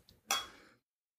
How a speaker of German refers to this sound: Ich würde sagen, dann äh, stoßen wir an. Vielen ja. Dank, dass du uns versorgt hast und falsche Flasche. Prost. Zum Wohl. Prost. Prost.